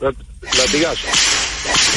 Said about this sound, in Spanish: demos un latigazo al gurú, perdón.